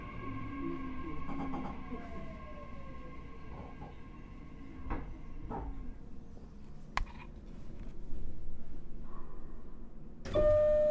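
A steady rumble of an express train carriage bound for Hanahata, with a few sharp knocks, then near the end a bright, sustained door-closing chime sounds as the doors prepare to close.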